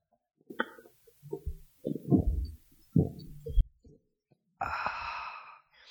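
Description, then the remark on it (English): A series of loud gulps as someone drinks a diet cherry 7 Up soda right into a microphone, four or five wet swallows in quick succession, followed by a long breathy exhale of relief. “i'm gonna see if i can drink this really loud on microphone okay all right”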